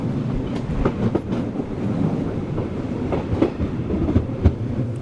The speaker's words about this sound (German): Leo Tolstoi heißt der Zug, der mich von St. Petersburg nach Helsinki bringt, in die finnische Hauptstadt.